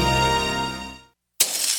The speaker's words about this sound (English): Hear that? That's the sound of a house being trashed while a gang of thieves ransack the place. And what they don't steal will be destroyed.